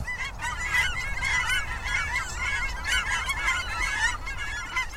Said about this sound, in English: Cackling geese, which look like pint sized Canada geese, have a rhythmic, higher pitched call.